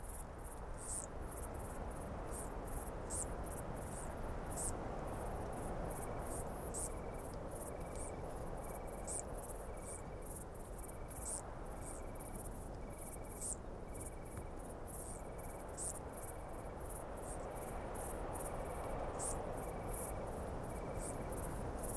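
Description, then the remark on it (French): Continuous high-pitched stridulation from wingless bush-crickets (decticelles) under a Scots pine on a full-moon night in the Rhône valley, a dense rapid chirring with regular pulses, over a steady low rumble of the Mistral wind throughout. “Ce sont des sauterelles aptères qui n'ont pas d'ailes et qui ont euh, un appareil stridulatoire euh, qui est dû à la transformation de leurs élytres et ça donne ce son très particulier.”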